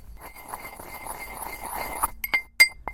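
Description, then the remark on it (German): Clinks and rattles of kitchen utensils as finely chopped herbs and salt are put into a mortar to make herb salt, with a dense rustling patch followed by a few sharp, bright clinks of hard objects. “Irene zieht allerlei Utensilien aus ihrem Korb und legt los.”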